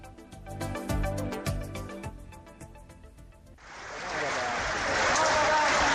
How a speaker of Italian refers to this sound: Quelli che sentite quelli che sentite sono gli applausi dei lavoratori degli operai della Fincantieri di Genova. Con questi applausi ieri hanno accolto il Presidente della Repubblica, Giorgio Napolitano.